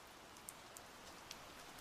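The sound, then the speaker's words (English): The first few scattered raindrops tap sharply and irregularly over a soft, steady hiss of light rain falling in a courtyard and on rooftops on a hot summer day, fairly quiet, with no voices. “The first few drops of rain started to fall out in the courtyard and on the rooftops.”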